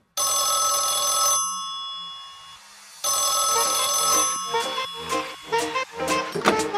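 An old-fashioned police desk telephone bell rings loudly in two long bursts of rapid metallic clatter separated by a brief pause, with no voices.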